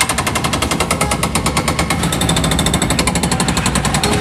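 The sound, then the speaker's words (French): A jackhammer pounds away in rapid, steady bursts, loud and harsh, with the rumble of construction machinery underneath and no voices, during tramway construction works in a neighbourhood between Le Canet and Les Arnavaux. “dans un quartier en pleine mutation avec aussi les travaux du tramway.”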